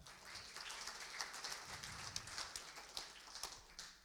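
A crowd applauds after a prayer: a dense, steady wash of many hands clapping that holds at an even level for about four seconds, with no voices over it.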